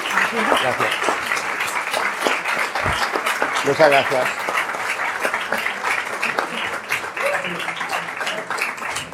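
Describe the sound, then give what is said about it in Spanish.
Audience applause for the presenters at the end of a talk, a dense, steady wash of many hands clapping that holds for the whole stretch, loud and even, with a voice briefly speaking over it. “Démosles un aplauso, por favor.”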